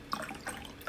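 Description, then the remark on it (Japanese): Cold tea pours into a cup in a steady, soft trickling splash with a few brighter gurgles, lasting about a second with no talking over it. “この間ちょっとお茶入れますか。”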